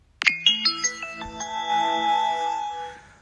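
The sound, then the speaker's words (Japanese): A bright electronic train chime from a phone app of train-only sound effects plays a quick rising run of bell-like tones, then holds a ringing note that slowly fades. It is clear, with no talking. “最近ね、このアプリダウンロードして効果音の電車のみのアプリがあるんだけど、この、この音が好きなの。”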